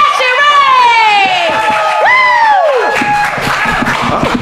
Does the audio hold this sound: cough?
no